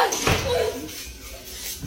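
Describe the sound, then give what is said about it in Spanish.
A door in a house bumps and swings open with a short creaking groan, a brief sound over a faint background hum. “¿Qué es eso, Se abrió la puerta.”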